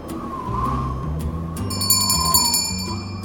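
A crisp bell rings, carried on a breeze, as a goat runs out of nearby grass, with bright, shimmering high tones that enter partway through and linger, layered over a steady bed of low, sustained musical notes. No one speaks.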